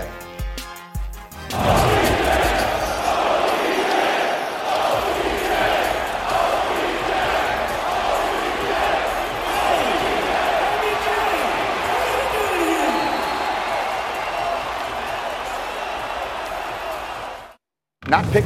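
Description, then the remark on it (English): A packed basketball arena at a Mavericks game roars with sustained, excited crowd cheering and shouting for about fifteen seconds, the crowd excited to see Odell Beckham Jr. (OBJ), there with Micah Parsons and Trevon Diggs; loud and dense, with scattered whoops rising above the din before it cuts off abruptly. “It was a day that would end at the Mavericks game last night, where he went with Micah Parsons and Trevon Diggs. And listened to how excited the crowd was to see OBJ.”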